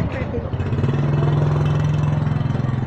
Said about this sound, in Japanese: ちょっとまたバイクがすごい状況だなこれ歩いてらんない